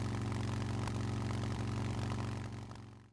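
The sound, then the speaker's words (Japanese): A motorcycle engine, just repaired at a bicycle shop, runs steadily, its deep rumble pulsing evenly before tapering off near the end. No one speaks. “これで完璧だバイクのエンジンまで直してまう自転車屋なんてすごい”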